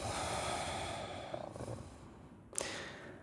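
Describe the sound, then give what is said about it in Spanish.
A long, slow exhale through the nose during a guided breathing meditation, flowing out as a soft, airy breath, gradually fading, followed by a brief sharper intake of air near the end. “Exhalamos.”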